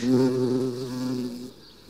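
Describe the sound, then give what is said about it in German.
A bumblebee buzzes steadily, a low droning hum with a wavering pitch that fades out near the end. “weil die brummt hier schon wieder und die sitzt ja in Gedanken zumindest auch immer mit am Tisch.”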